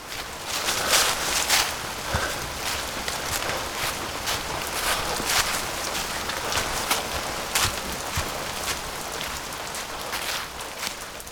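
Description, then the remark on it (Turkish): Steady rain falls, a continuous hiss broken by dense, sharp patter of drops striking a hard surface, fairly loud and even throughout, with no voices. “Kağıt bu bazen bir hayat kadar önemi olsa da geleceğiniz o kağıdın üzerinde olsa da yağmur için bir kağıt parçasından ibaret işte. Islatı verir.”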